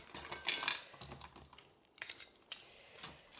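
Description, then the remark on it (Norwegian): Hands fumble and pat across a hard tabletop searching for misplaced filter glasses, making irregular clicks, taps and light rattles in quick bursts, with no talking. “Nå har jeg forlagt filterbrillene mine igjen. Skal vi se. Kjenne på er det alle bordet.”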